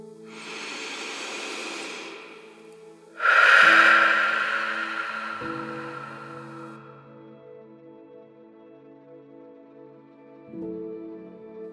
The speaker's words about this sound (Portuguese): Vamos começar esse momento oxigenando o nosso cérebro, respirando profundamente.